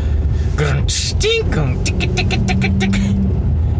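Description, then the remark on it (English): A car drives along on a morning commute with a steady engine and road rumble throughout, while brief vocal sounds and a quick run of rhythmic clicking bursts come through over the drone. “it would be funny if you could do a whole stomp intro song with just uh, car driving noises.”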